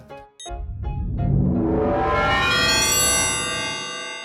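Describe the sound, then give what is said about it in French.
A car engine revs hard and accelerates, its pitch climbing steadily for a few seconds as the motor roars louder, with no voices present. “Et pour pouvoir la rattraper, va falloir mettre pied au plancher.”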